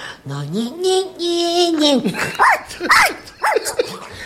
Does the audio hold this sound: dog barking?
yes